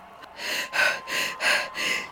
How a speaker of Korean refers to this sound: 대제사장 아비아달의 아들 요나단이 놀라운 소식을 가지고 헐레벌떡 달려온 것이었어요. 그것은 바로 다윗이 솔로몬에게 왕위를 물려주었다는 소식이었어요. 요나단은 숨이 턱까지 차서 헐떡거리면서 말을 계속했어요.